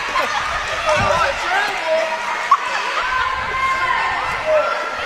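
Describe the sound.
A student section yells and chants steadily, not seriously, behind the commentators during a basketball game at a score of 66 to 30, a dense wall of many voices with a few sharp shouts rising above it, carrying a noisy gym atmosphere.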